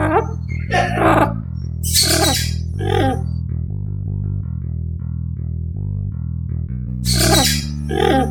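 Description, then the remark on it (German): A talking pet bird, parrot-like, lets out a handful of harsh, raspy squawks in short bursts, a cluster early on and another near the end, over a steady low droning hum. “Bei sprechlustigen Vögeln allerdings könnte es schon problematischer werden.”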